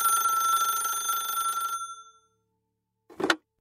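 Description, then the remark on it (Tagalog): A telephone's metallic bell rings loudly for nearly two seconds, then trails off into silence before a short, sharp clunk, like a receiver being picked up. “Muli ay mag-isa na naman si Dennis at maya-maya lamang ay nagring ang telepono.”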